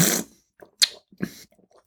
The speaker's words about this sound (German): Also Schlürfen ist erlaubt, wie immer beim Probieren. Gehört auch mit dazu.